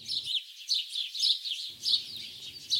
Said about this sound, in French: Tout est paisible autour de lui. La faible brise lui caresse la peau. Le chant des oiseaux le berce.